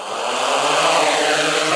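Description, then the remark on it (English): A steady, loud whirring buzz of quadcopter drone motors as the drone hovers about seven feet off the ground just after takeoff, holding an even pitch throughout, without any voices. “That's the sound of the engine.”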